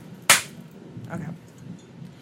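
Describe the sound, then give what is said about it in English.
A single sharp hand clap, made as a marker for editing a recording, rings out, loud and crisp with a quick decay, followed by quiet background murmur and faint voices. “No, I clap so when so I'm you editing.”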